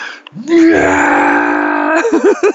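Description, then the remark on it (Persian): A voice mimics a baby bursting into tears, one long loud wailing cry held for over a second, then trailing off into short sobbing whimpers, alone. “نینی که زیبایی شناسی نمیفهمه نینی که قیافه داغون و قیافه خوشتیف تشخیص نمیده چرا نینی این کار کرد چرا نینی زد زیر گریه از چه چیزی ناراحت شد”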